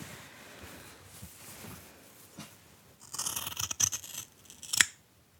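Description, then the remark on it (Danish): Tailor's scissors snip through thick tweed fabric, a few crunchy cuts after a quiet start, ending with one louder sharp snip; no one speaks. “Skal vi se, om den kan noget Og så prøver den. vi lige med, øh, med tweeten.”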